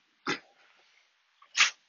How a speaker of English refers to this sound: Sorry, one of my puppy dogs and my kitty cats decided that they're going to not be impressed with each other, and the dog snapped at it.